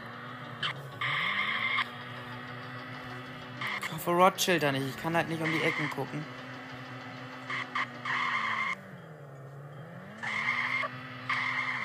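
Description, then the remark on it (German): A car engine drones steadily as the car drives back, rising and falling in pitch, with repeated bursts of high tire squealing as it skids through turns. A person talks briefly over the driving midway through. “Jetzt kommen wir eigentlich wieder mit dem Auto zurück.”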